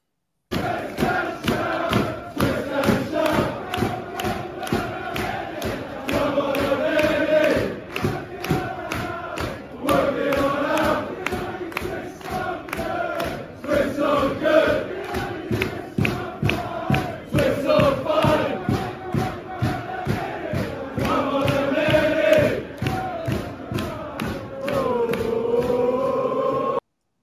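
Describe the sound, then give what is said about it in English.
Football fans in a large stadium crowd sing a rhythmic chant in unison in the ground on a Monday night, loud and sustained, with steady regular beats like clapping or stamping driving the melody throughout. “We've heard this sang in the pubs on, on Europe and around, but to hear it sung in the ground um, on on Monday night was absolutely brilliant.”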